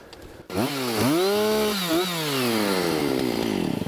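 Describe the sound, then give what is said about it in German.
A chainsaw roars to life and cuts into wood, its engine pitch bending down under load and rising again, then settling into a steady, loud buzzing drone with no voices. “Den kannst du sonst in der Mitte noch mal durchsägen, dann nehme ich den manuell weg.”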